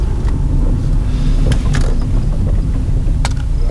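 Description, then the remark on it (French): A car drives along with a steady low engine rumble and road noise, loud as if heard from inside, with a few brief clicks and knocks and no talking, as the driver looks for a place to park far away. “Donc là, je cherche à me garer. Faut que je gare ma voiture vraiment loin.”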